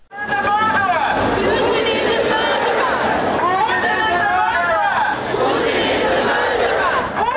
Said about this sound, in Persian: فریاد میزنند پوتین قاتل است شعار مشابهی که معترضان به مرگ آقای ناوالنی در برلین و در پاریس هم فریاد زدند